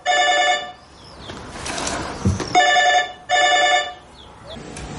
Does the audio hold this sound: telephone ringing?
yes